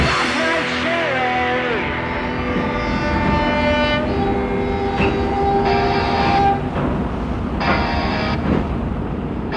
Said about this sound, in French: Et puis on va changer, on prend pas l'avion cette fois-ci, on prend le train alors.